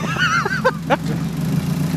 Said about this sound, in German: Und wir haben jetzt noch einen Mercedes-Fahrer, der ein bisschen mit seinem neuen Auspuff angeben muss.